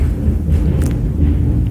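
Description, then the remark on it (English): A loud, deep rumble of thunder during a storm, following a flash of lightning, rolls steadily throughout, with a brief sharper crack partway through, heavy with no voices. “yeah, I knew that was going to hit as soon as yeah, I saw the lightning”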